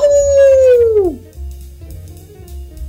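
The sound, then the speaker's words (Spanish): A ready-made wolf howl sound effect from an audio recording system: a single loud howl holding a steady pitch for about a second before sliding downward and fading, with quieter low rumbling afterward. “Por ejemplo, hay 16 tipos de grito, grito histérico, grito asustado, grito de lobo.”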